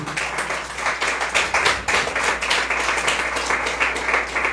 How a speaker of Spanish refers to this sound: Y la ofrenda de palmas al Señor, pues. En el nombre de Jesús.